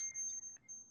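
A phone alert sounds off with a thin, high-pitched electronic beep, a steady tone broken by a short gap or two, fairly quiet and with no one talking over it.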